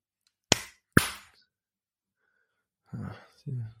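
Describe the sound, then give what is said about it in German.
Two sharp, loud hand claps about half a second apart, each with a quick decay, made as a marker in the audio track of a recording so the spot can be found and cut out later, followed after a pause by two brief murmured vocal sounds. “Ich klatsche mal ganz kurz in die Hand, dann siehst du nachher in der Spur, wo das ist, dann kannst du es rausschneiden, ja?”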